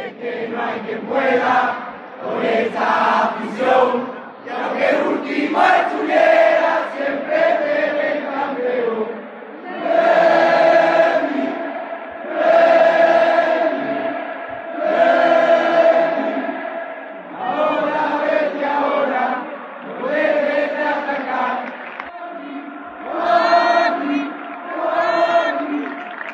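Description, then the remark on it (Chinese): A large crowd of Real Betis football fans, recorded live at the match, chants loudly in unison in their love for Joaquín, singing repeated melodic phrases in rhythmic bursts with short breaks between them, the massed voices carrying on steadily throughout. “我呢是在现场亲身感受了他们对华金的热爱，给大家来放一段当时我拍的一段音频。”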